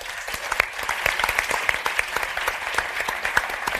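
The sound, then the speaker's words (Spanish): A crowd applauds steadily, dense overlapping claps with sharp individual slaps standing out, holding a fairly even loudness for a few seconds without any voices. “Un aplauso para ella.”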